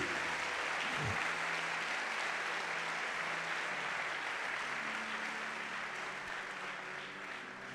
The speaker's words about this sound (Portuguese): Se é você, dê uma salva de palmas bem forte a Jesus.